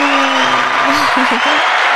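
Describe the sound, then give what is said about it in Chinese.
A cheering and applause sound effect: a dense, steady roar of clapping crowd noise lasting about two seconds, with voiced shouts and whoops rising over it. “是的，那值得欢呼一下。”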